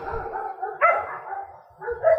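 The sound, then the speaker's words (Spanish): Dogs belonging to neighbours down below bark and yip in a rough, overlapping burst on a Sunday, with a sharper louder bark near the middle and another flurry at the end. “bueno, disculpar eh, los perritos, que ha sido hacer un directo y los vecinos de allá abajo, ¿no?”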